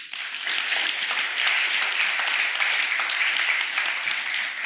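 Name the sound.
applause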